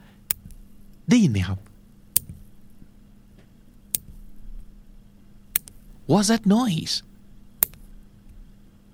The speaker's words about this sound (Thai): What is that? Someone's doing something. What is he or she doing? Oh, I think they must be clipping their nails yeah that's the sound of nails clipping someone's clipping their nails or someone's cutting their nails